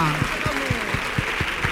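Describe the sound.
An audience applauds in a dense, steady wash of clapping with a regular rhythmic pulse running through it, while voices can be heard underneath.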